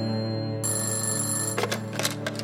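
telephone bell ringing

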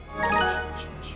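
phone ringtone jingle

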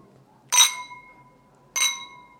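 wine glasses clinking

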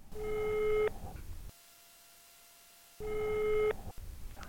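telephone ringback tone

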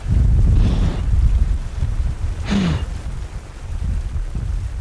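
heavy rain and thunder

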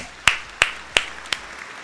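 hands clapping applause

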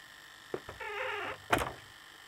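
door being closed

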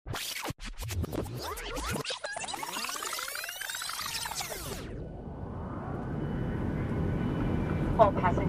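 airplane engine

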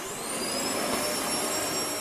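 vacuum cleaner running

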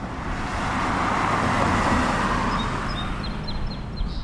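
road traffic

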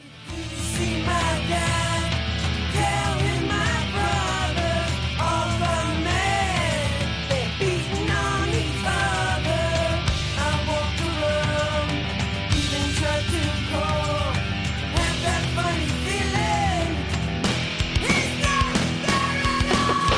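electric guitar solo

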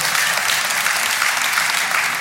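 audience clapping

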